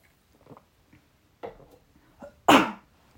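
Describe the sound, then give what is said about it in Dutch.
Someone takes a sip of a drink: a few soft mouth and swallowing noises, then a louder, breathy exhale or throat sound at the end. Nobody speaks. “Ik neem even een slokje, momentje.”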